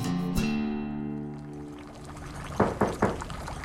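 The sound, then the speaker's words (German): Three firm knocks on a door come in quick succession near the end, following a fading, ringing tone with a faint liquid clatter at the start. No one speaks. “Gerade als er erneut probieren will, klopft es an der Tür.”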